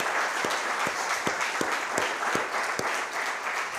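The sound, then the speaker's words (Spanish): An audience breaks into sustained applause, a dense wash of many hands clapping steadily and loudly, with a few sharper claps punching through at a roughly regular rhythm. No one speaks over it. The applause is given to God during a morning church service. “denle un aplauso por favor a Dios esta mañana.”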